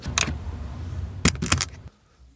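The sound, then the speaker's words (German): Keys jangle in short metallic bursts as someone checks they have their phone, keys and wallet: one shake near the start and a cluster of quick rattles a second later, over a low background hum that fades out at the end. “Habe ich alles? Handy, Schlüssel, Geldbeutel.”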